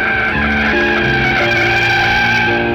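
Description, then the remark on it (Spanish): A loud, continuous screech of a taxi's tires skidding as it swerves and brakes abruptly to avoid another car cutting across its path, a sustained squeal that holds for a few seconds with slight shifts in pitch, without any voices. “Pero, de repente, sin saber por qué otro automóvil se cruzó abruptamente en el camino taxista para no causar una tragedia tuvo que girar el auto y frenar abruptamente.”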